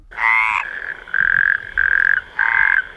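A toad croaks loudly, four or five buzzy, throaty calls in a steady rhythm with short pauses between them, with no one talking.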